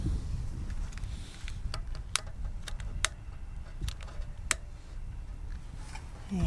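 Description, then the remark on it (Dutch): A lighter is clicked repeatedly in sharp, irregular bursts over a steady low rumble of wind, as someone tries to light a candle in the wind at a memorial spot out in nature. “steekt even een kaars aan, lastig met de wind.”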